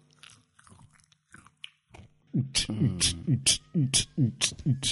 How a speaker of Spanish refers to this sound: Bueno, ahora vamos a probar cómo suenan los micrófonos masticando. No se puede masticar mientras grabas un programa.